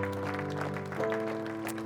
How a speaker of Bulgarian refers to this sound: Благодаря. Нека им ръкопляскаме, докато излизат. Там отзад има хора. Заповядайте, момчета.